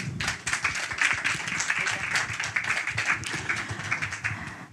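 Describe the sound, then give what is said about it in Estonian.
An audience at a theatre lab performance applauds to thank a participant, a dense steady patter of many hands clapping that holds at an even level from start to finish, with no one speaking over it. “selge, väga põnev, aitäh sulle, aplaus.”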